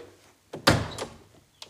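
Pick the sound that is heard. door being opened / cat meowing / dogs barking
door being opened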